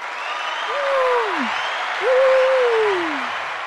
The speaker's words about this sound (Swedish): Nej, alltså den här är så bra. Kan den inte få en applåd